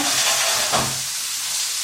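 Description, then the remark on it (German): Steady sizzling of vegetable trimmings left over from carving, frying in a hot pan, a broad crackling hiss with a brief louder burst near the start as food hits the oil. “So, ich tue hier gerade mal oh, die Abschnitte von unseren Schnitzereien die wir hier in die Pfanne.”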